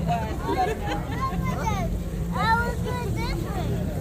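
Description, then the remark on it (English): A steady, loud low rumble of a boat motor on water fills the background while several people sitting in the boat, which is leaning to one side, talk and chatter over it. “The boat's going like this.”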